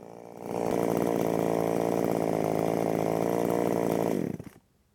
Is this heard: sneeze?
no